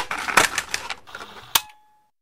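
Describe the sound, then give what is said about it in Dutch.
Mechanical clatter of a cassette player being started to play a cassette with a recorded poem: a quick run of plastic clicks and rattles, then one sharp, solid clunk and a faint fading hum. No voices. “Tetje, start de cassette.”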